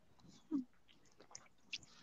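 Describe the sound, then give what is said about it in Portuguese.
A cat named Andrômeda chews and nibbles on a person's hand: a soft muffled bite followed by a few faint, wet clicking mouth sounds, otherwise quiet, with no talking. “Andrômeda está aqui também devorando minha mão.”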